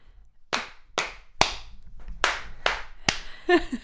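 Six sharp slaps of hands on thighs, struck close by in a steady rhythm with a brief pause midway, ending with a short vocal sound.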